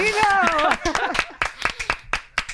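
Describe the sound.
A voice calls out briefly, then scattered applause follows: a handful of sharp, irregular claps, moderately loud, spread over a couple of seconds.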